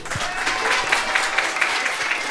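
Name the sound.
audience applauding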